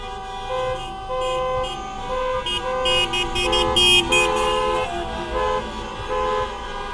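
Car horns honk repeatedly amid steady city traffic noise, several overlapping toots of varying length, fairly loud, with no voices present.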